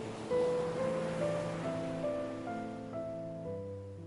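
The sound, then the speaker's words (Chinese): Steady, low ship horn tones from an arriving ship sound from far off across the sea, holding and shifting between a few pitches over a continuous wash of breaking sea waves; no one speaks. “听见了吗？从远处的海传来的汽笛声，船要到了。”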